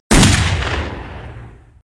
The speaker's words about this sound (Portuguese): Minutos depois, houve um disparo com arma de fogo.